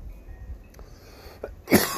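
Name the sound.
coughing fit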